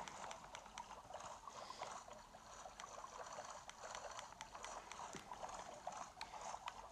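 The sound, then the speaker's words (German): A steady wash of water with repeated soft splashing strokes from a small boat with its sails set, moving through water in a video game, continuous, with no voices. “Und jetzt hole ich mir mal wieder mein Boot raus und setze die Segel.”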